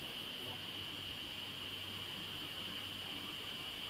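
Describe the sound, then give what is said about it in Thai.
A faint, steady laptop cooling fan hiss runs unbroken through the whole stretch, with a thin high whine and a soft low hum beneath it and no one talking. “เหมือนคอมพิวเตอร์พี่มันเสียงดังป่าวะใช่ไหมได้ยินเสียงซ่าๆป่ะเสียงเหมือนพัดลมคอมป่ะเสียงพัดลมคอมพิวเตอร์ป่ะพี่เสียงพัดลมแล็ปท็อปป่ะ”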